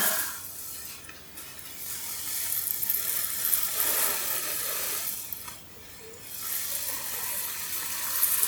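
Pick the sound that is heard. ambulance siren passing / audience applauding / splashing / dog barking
splashing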